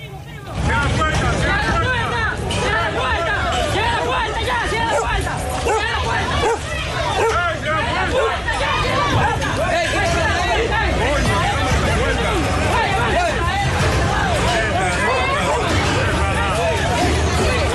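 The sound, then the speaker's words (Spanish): Loud, continuous crowd commotion at a border gate in Dajabón, Dominican Republic: many overlapping voices shouting and chattering, with stones striking the gate, a dense, restless hubbub that holds steady for the whole stretch with no single voice standing out. “Vamos a escuchar este desorden”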